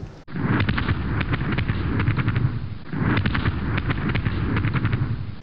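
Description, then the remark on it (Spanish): Multicoloured December fireworks exploding in a dense, continuous barrage, sharp bursts and crackles overlapping with deep booming rumbles, loud and sustained throughout with no voices. “Fuegos artificiales”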